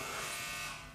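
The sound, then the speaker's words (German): A doorbell buzzer sounds in one continuous, harsh electric drone, steady and fairly loud for the whole second, with no voices over it. “Das klingelt immer noch.”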